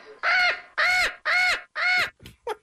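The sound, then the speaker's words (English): A bird kept in a home squawks loudly and harshly four times in a steady rhythm, each call drawn out and raspy, followed by a couple of shorter clipped squawks, with no talking. “Imagine against, you're just at home, the bird in the home.”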